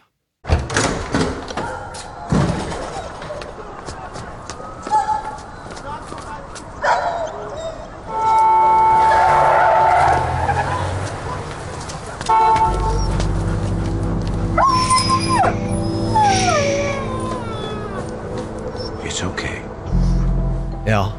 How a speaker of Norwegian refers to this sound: Så når vi hører nå, så hører man en bil eh, som har kjørt på en hund.